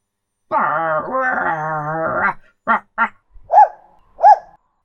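A dog named Sherlock, ears up, growls in a low, rumbling stretch for about two seconds at a gate in an old wooden fence in a forest, then lets out four sharp, fairly loud barks spaced apart, with no talking.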